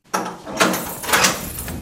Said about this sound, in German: Es geht mitten rein in den alten Gefängnisbau in Butzbach. Durch schwere Türen, die erst auf und dann wieder zugeschlossen sind.